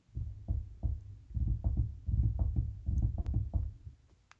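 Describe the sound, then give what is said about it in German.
Rapid, irregular knocking on a table, a dull drumming of many quick raps over about four seconds, softening toward the end. “Achso, ich habe auf den Tisch geklopft.”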